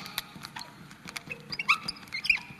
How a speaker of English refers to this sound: I'm not going to miss these squeaky markers.